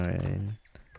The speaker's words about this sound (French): Ça, c'est le bruit du frigo qu'on ouvre euh, de très très nombreuses fois par jour.